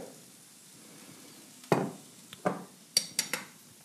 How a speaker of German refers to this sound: Schauen wir mal zu unseren Bohnen. Ich höre, es brutzelt schon mehr. Super. Wir rühren um. Das schaut schon sehr gut aus das ist uns eh nur recht, wenn das Wasser verdampft.